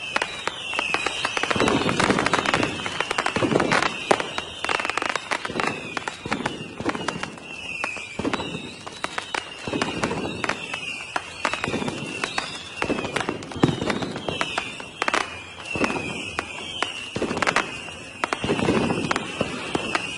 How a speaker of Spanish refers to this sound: Bueno, aquí van a estar sonando unos fuegos artificiales de fondo.